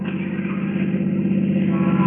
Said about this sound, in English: It is shortly before 6 in the evening, January 9th, 1947. Cars approaching the corner of 6th and Los Angeles Streets in downtown Los Angeles.